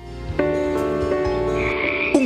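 A loud frog croaks in a continuous run of deep, buzzing calls, with a few sharper pulses and a rising chirp near the end. No one speaks.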